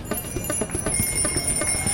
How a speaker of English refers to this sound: That's the sound of a road full of people on bikes.